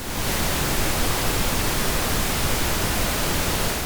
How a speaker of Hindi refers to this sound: practical level पर किसी भी ऐसी आवाज को जो लगातार एक जैसे निरंतर हमारे कानों तक पहुंचती है उसे हम व्हाइट नॉइज कहते हैं जैसे कि बारिश की आवाज